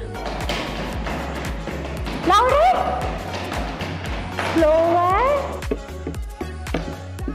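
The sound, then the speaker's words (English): Children patter and tap on surfaces to imitate rain, a steady, dense drumming of many small thumps, while an adult voice calls out loudly twice over the tapping. “Who can make the sound of rain?”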